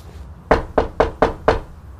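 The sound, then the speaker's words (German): Five loud, sharp knocks on a door in quick, even succession, forceful, with no one speaking. “Es ist offen. Alter, die Tür bricht gleich zusammen.”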